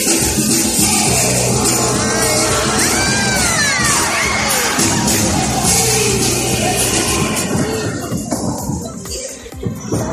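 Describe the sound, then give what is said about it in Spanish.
A circus audience at Circo Quirós erupts in loud, sustained screaming and shouting as acrobat David Castañeira loses control in the act called La Rueda de la Muerte and falls from a height of 8 metres; high-pitched cries from many voices overlap for several seconds before tapering off slightly near the end. “Este era el momento en el que el equilibrista David Castañeira pierde el control en el número llamado La Rueda de la Muerte que ejecutaba con su hermano Michael en el circo Quirós y cae desde una altura de 8 metros.”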